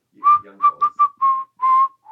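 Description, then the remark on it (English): Someone whistles a bouncy pop tune, a run of short clear notes followed by longer held ones, with no talking underneath. “I think it's like …, Okay. the young people. It's like that whistle song.”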